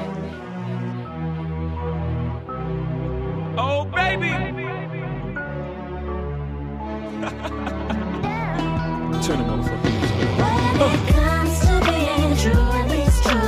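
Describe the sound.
A hip-hop track with a man's shouted ad-libs and a laugh over a soulful, sample-like backing, growing fuller and louder with layered vocals and a steady beat.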